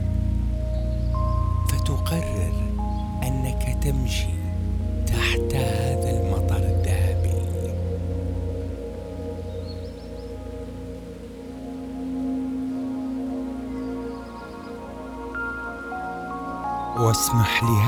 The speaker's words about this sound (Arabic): هذا المطر ان يغسلك